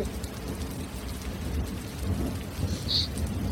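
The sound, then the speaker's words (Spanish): Steady heavy rain pours down in a strong thunderstorm, with a deep, rumbling roll of thunder underneath, swelling and fading throughout; no voices. “Caía una fuerte tormenta y en algún momento sintió temor de aquellos relámpagos y truenos.”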